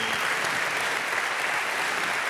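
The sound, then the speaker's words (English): A crowd applauds the 200 volunteers who served to make the October Blast event happen, with dense, sustained clapping, a steady wash of many hands at an even loudness throughout, with no voices standing out. “Would you clap your hands for the 200 of you that served to make it happen?”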